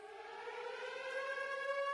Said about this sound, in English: And at this point, like these air raid sirens go off.